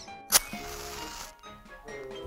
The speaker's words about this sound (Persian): میشه روی کابینت با آشق زد به در, در قابلمه یا صدای سوزوندن کبریت